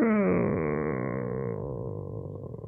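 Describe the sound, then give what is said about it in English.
A voice imitates a creaking door with one drawn-out, groaning creak that slides in pitch and fades slightly over nearly three seconds. It is fairly loud, with no other talking. “and then you see this light suddenly open uh, and you hear the sounds of like a creaking door like”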